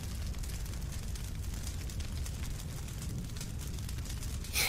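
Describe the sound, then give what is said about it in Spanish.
A steady, heavy rumble of a battle for a city fills the scene, with muffled booms and scattered crackling gunshots blending into one dense roar, and a sharper burst right at the end. No one speaks. “y dejamos de escuchar los disparos.”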